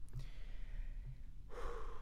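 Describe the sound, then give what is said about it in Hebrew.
A deep breath is drawn in and let out, a soft airy rush that swells near the end. No one speaks. “עכשיו, שנייה, כן. נשימה, ואנחנו חוזרים.”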